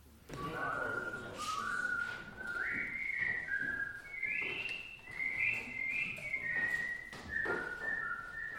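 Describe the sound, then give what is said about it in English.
One group of a choir whistles a slow, wandering melody, the sustained tones stepping up and down steadily over a busy, murmuring background of other voices, while the other choir groups sing a poem and a Latin liturgical table prayer. “One part sings the text from the poem, one part the liturgical text in Latin, and the third group whistles a curious laconic melody”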